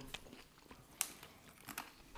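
Close-up chewing and biting of food, with a run of crisp, irregular crunches and wet mouth clicks, one sharp louder bite near the middle. No one speaks.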